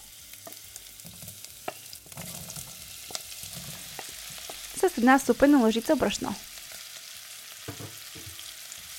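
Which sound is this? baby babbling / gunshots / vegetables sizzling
vegetables sizzling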